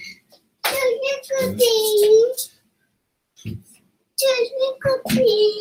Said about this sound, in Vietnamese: sorry mọi người nha em bé nó lại vô mà uh, không biết không biết cô giữ nó đi đâu mất tiêu rồi cho nên nó là thôi kệ cứ để bé nó ngồi đây một chút xíu có thể là lâu lâu mọi người sẽ nghe cái tiếng nó chen vô